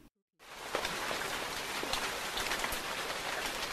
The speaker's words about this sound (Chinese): 从早上开始，外面就淅淅沥沥的下起了雨。他们最讨厌下雨了，因为他们不想全身被雨淋湿。三个家伙躺在屋里，听着外面的雨滴答作响。